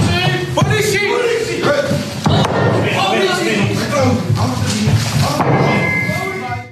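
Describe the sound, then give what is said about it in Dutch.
A Dutch police raid: loud, overlapping voices shouting 'Politie!' over heavy, irregular thuds and slams as a door is forced open, the commotion continuous throughout. “hè, dus echt zo'n politieinval, ja. dat klinkt behoorlijk indrukwekkend.”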